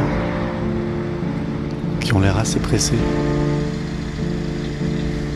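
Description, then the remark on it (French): Street traffic rumbles steadily, with a low engine drone from passing cars throughout, while a person speaks briefly over it in the middle. The cars pass along a street of 1970s apartment buildings as people head to work. “J'attends devant, je regarde les voitures passer, tous les gens qui vont au travail”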